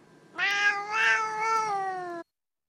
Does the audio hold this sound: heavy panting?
no